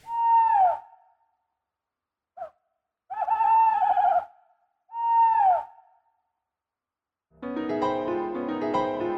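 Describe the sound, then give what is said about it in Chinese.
Real bird song: three loud, harmonic calls that slide downward in pitch, with one short chirp between them, then a dense, sustained tonal passage fills the final seconds. “然后我也想给老师听听看它真实的叫声。”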